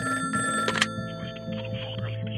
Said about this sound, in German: Nachdem die Nachricht von Kleins Flucht durch die Berichterstattung bis in die DDR gelangt, erhält Kleins Anwalt in München einen Telefonanruf.